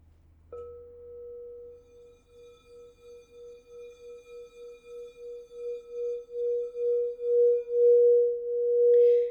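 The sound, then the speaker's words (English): A small Alchemy crystal singing bowl rings with one steady, pure mid-pitched tone that pulses with a slow wavering beat and swells gradually louder over about nine seconds, with no voices. “Part 2 of my Alchemy Crystal Singing Bowls Collection”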